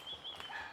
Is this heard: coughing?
no